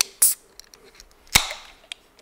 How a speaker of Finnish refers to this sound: nyt tulee Marsu aivastus.